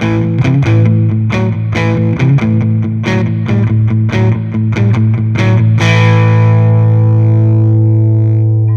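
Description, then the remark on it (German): An electric guitar through a floor overdrive pedal plays a quick, chugging riff of repeated picked notes over a steady low drone, then lets a final gritty chord ring out and sustain. Loud, no voices. “Aber das bin ich bei äh, ungefähr 99% aller Boden-Overdrive-Pedale.”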